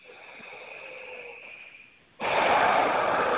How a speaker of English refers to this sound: just start to focus on your breathing. I'll kind of do it along with you. So if I start to sound kind of trancy, that's just you know I'm calming down too. So just focus on your breathing.